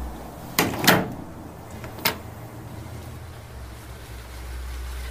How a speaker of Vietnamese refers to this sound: Rồi cầm vào trong nhà treo lên dây phơi sát bên cửa sổ Cô kéo cánh cửa lại Rồi đóng chốt thật chặt Sau đó đi ngủ